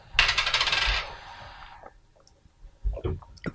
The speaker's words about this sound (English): All right, all right, here we go. So I gotta pop open the top here. Oh, sounds so good.